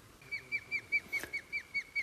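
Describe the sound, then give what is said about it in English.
An osprey, one of a pair, calls near its nest with a rapid series of sharp, high whistled chirps, about nine evenly spaced notes in two seconds, alone with no talking. “That's the other bird calling now, so they're both hanging around.”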